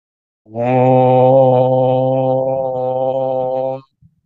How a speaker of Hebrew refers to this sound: האום הזה שסיימנו איתו, ההודים מאמינים שיש לו השפעה רוחנית עמוקה. לכל הפחות יש משהו ברטט של המם ושל האו שלפעמים מרטיט את הלב שלנו, אז אפשר לנסות את זה, כן, זה תרגול נחמד, לעשות את האום הזה, לראות איך זה משפיע